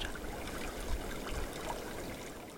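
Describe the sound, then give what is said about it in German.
The Lyle River in the California Sierra flows steadily along a meadow hiking trail, its water trickling and burbling over stones in a continuous, even wash with small splashy accents and no voices. “Der Weg geht über Wiesen entlang und immer am Lyle River entlang.”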